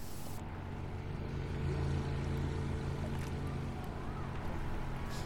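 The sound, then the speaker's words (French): A boat engine drones steadily and loudly, a low continuous hum with water rushing and wind noise over it as the boat heads out to sea to look for penguins. “Nous sommes enfin prêts et remelotte, On prend la mer en espérant trouver des manchots.”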